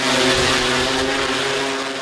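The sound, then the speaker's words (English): Drone propellers buzz loudly and steadily as the drone returns from a mission, a continuous high-pitched whine with layered tones, holding level for about two seconds with no one speaking. “Finally, the drone makes it back.”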